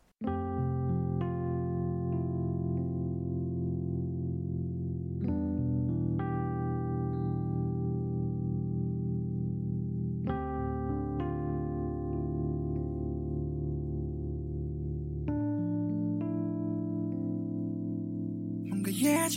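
A band's pop song opens with sustained, ringing chords that shift roughly every five seconds, steady and fairly loud, with no singing yet.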